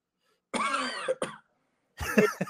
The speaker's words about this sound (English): That was that one's the what do you do with the Biden that gets me every time? Oh, the, the little subtle cough.